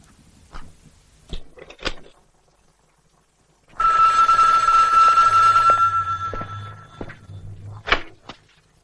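A telephone in one of the rooms rings as a receptionist puts a call through from the switchboard: one loud, continuous, metallic burst lasting about three seconds. Scattered sharp clicks and knocks come before and after it, and no one speaks.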